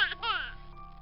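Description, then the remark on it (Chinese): A baby cries in two quick bursts, a short high wail followed by a longer one that slides downward in pitch and trails off, leaving a faint low hum. “可就在这个时候，婴儿的哭声打断了相拥的两个人。”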